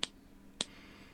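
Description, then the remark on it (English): Two crisp finger snaps, sharp and bright, spaced about half a second apart against a quiet background hum, with no talking. “Did you have to recreate and, that with real with real snaps, or was that all completely electronic?”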